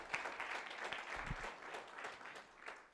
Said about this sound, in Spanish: Si quieres aplaudir, apláudenle a Dios.